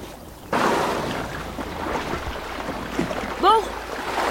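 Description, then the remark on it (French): A tourist boat's engine drones steadily as it passes over open water, starting suddenly and holding a loud, rough rumble with splashing wash, plus a brief high chirping call near the end. “Ça n'était pas un bateau de pêche, mais certainement un navire de touristes.”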